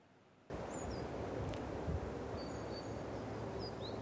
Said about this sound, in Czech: Slyším síkorky a ty určitě za chvilku přiletějí a tamhle už hopsají v křoví.